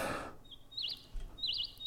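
Faint, high bird chirps: a thin sustained whistle that breaks into two short warbling trills, heard alone after a brief burst of noise at the start.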